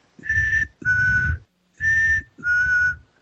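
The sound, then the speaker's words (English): Someone whistles a two-note figure, an interval of a fourth, a higher note dropping to a lower one, played twice in a steady rhythm. The tones are clear, sustained and fairly loud, with no talking. “It's simple. It's based on two notes, so.”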